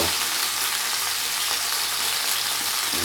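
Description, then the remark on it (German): A batch of thawed meat is lightly seared in a hot pan, a steady, continuous crackling hiss filling the upper range, with no voices over it. “Eine Ladung mal hier aus der Pfanne. Die ist das leicht angebraten.”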